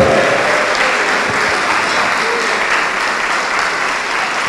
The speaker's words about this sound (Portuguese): Oh glória, vamos aplaudir mais ao nome do Senhor.